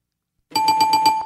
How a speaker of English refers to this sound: Correct. Hey. You got it. You got the bell.